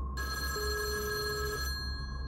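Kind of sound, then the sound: signal or alarm, telephone ringing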